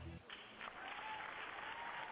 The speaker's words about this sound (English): We got some applause, ladies and gentlemen. We got some applause.